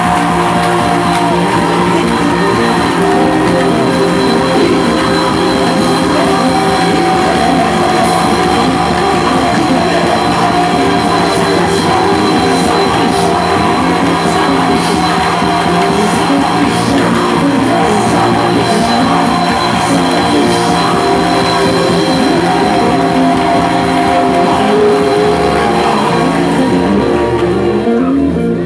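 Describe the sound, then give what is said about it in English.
An audience shouts and claps together in a loud, continuous roar, with dense overlapping voices and a steady wash of clapping that holds strong for nearly half a minute before easing at the end. “In the next 10 seconds, as you shout and clap, let it come down.”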